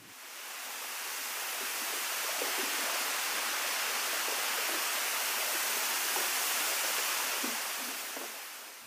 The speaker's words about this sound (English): Let's listen to the sound of a melting glacier in Norway.